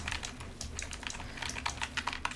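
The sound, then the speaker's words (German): Rapid clicking of keys on a computer keyboard, a steady stream of crisp taps at moderate volume with no voices. “Und zwar ist meine Maus und Tastatur halt so fett.”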